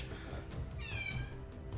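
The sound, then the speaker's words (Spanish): A cat gives a single drawn-out meow, its pitch bending as it rises and falls, heard over a steady low background rumble with no one talking. “¿Escucha algún gato por ahí?”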